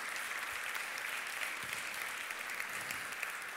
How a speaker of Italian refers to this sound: Amen. Potete andare a posto. Facciamo un applauso a questa famiglia.